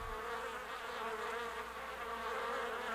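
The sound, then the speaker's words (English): A dense, continuous swarm of bees buzzing loudly, a steady droning hum that fills the whole stretch without pause, with no voices present. “The buzzing of the bees was very loud.”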